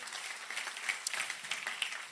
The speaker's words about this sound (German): Hey, vielleicht können wir uns nochmal gegenseitig einen riesen Applaus geben.